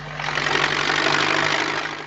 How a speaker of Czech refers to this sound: tobě dá do ruky pásový traktor. Co pak to necítíš, co to chce? No to je jiná mašina než patnáctka.